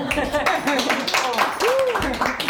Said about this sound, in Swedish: Ringande applåder.